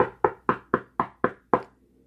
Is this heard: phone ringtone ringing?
no